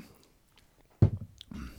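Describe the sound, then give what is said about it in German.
Someone takes a sip of water: after a second of near silence comes a sudden soft, low thump, then brief wet swallowing noises that trail off, with no talking. “So, ein Schlückchen Wasser.”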